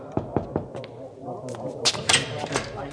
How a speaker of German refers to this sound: Hier muss es sein. Ich klopfe mal eben an.